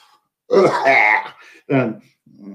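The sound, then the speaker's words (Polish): A person clears their throat in a couple of rough, strained bursts, holding back a cough, followed by a brief pause and a faint vocal sound. “na kaszel mi się zbiera.”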